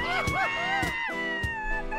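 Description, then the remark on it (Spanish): A crowd cheers and shouts in welcome for José Antonio Pontón, with rising and falling whoops and bursts of noisy hubbub over a steady tonal background, lasting about two seconds at an even, fairly loud level. “el querido José Antonio Pontón, con gritos, con algarabía, con fiesta, como de barrio, mi querido Pontón.”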